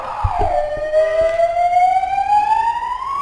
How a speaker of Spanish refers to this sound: Está pasando una ambulancia, por ahí no se escuchó bien.